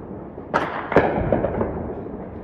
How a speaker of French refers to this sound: Et vers 9 h elle a entendu des explosions comme celle-ci qu'elle a filmée. Uh, j'ai commencé à entendre des explosions, des frappes qui résonnaient très fort.